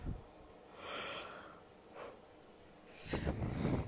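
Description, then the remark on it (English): Someone yawns, a breathy drawn-in breath followed by a longer, louder airy exhale near the end, with no talking. “I was trying to record a song earlier and I just kept fucking yawning.”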